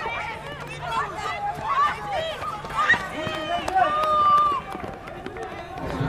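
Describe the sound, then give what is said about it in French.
Middle-school pupils (sixth graders) running a cross-country race outdoors at school, with many young voices shouting, calling and cheering all around in a steady, lively din. “Euh, bah, ils font du cross, ils courent.”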